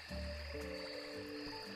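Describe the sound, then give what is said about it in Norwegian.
A frog croaks in a steady, droning call with low harmonic tones, continuous, over a faint high-pitched background buzz of other night creatures. “Men når våren kommer tilbake og temperaturen øker, øker også kroppstemperaturen, og frosken kommer til liv på nytt.”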